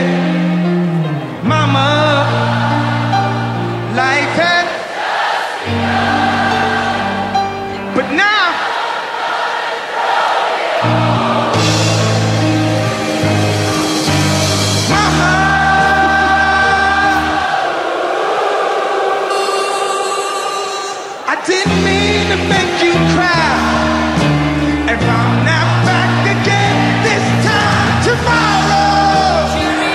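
A loud live rock cover played outdoors, a strained, shouty vocal wandering off-key over a heavy band and crowd noise, continuous for the whole stretch with only a brief dip partway.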